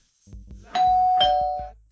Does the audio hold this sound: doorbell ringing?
yes